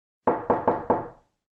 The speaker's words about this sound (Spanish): bueno, pues vamos a ver la segunda, que es llamar a la puerta.